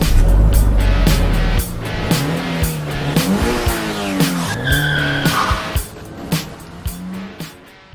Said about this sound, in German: Ich starte das Auto. Bitte darum. Auto gestartet.